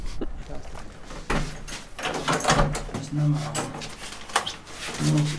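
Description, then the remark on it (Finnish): The heavy main passenger door of the ship Sampo grinds and clatters open over several seconds as people board, with scraping metallic bursts and a low rumble. Voices talk nearby. “Mikäs ovi tää? Tämä on pää, pääovi niin kuin asiakkaille, eli Kausi on ohi, niin täällä on esteitä tiellä.”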